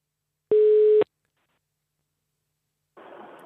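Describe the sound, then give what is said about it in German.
A single steady electronic telephone ring tone sounds for about half a second, loud and clear, followed by silence and then a brief burst of soft noise like a line connecting. “Es klingelt.”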